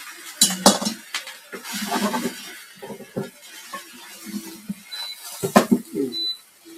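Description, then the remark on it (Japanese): Pots and pans are handled while cooking, with sharp metallic clanks and knocks at irregular intervals, a couple of louder bangs, and brief ringing clinks of metal cookware throughout. “なんかこれ変だな。鍋触れないな、これ。”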